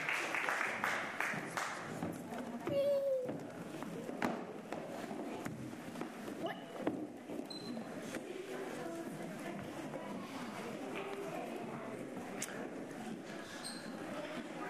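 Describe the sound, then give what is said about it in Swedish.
A church audience applauds for all the children, sustained crowd clapping that stays fairly steady for the whole stretch, with a few brief murmuring voices and shuffling mixed in. “Nu tackar vi Jesus med en stor applåd för alla barnen här.”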